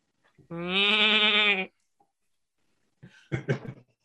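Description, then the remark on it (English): A goat lets out one long, loud, wavering bleat, followed after a short pause by a rougher, choppier burst of bleating. No one speaks. “but you all are able to get the goats out and meet up with your dogs.”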